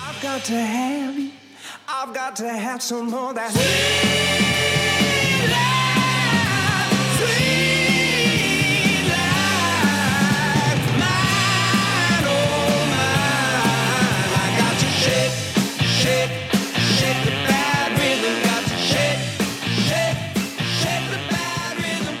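A 70s-style rock song plays loud, opening with a sparse, quieter intro before the full band crashes in with heavy bass, driving drums and dense guitars.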